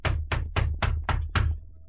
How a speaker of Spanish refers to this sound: De pronto, a la puerta de una humilde casa, llamó un soldado.